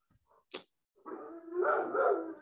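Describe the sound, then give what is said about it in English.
Dogs barking outside a house as a dog walks by the front: one sharp, quick bark, a brief pause, then a longer run of drawn-out, overlapping barks that grow louder. No one speaks. “I also think that the dogs barking might be getting picked up.”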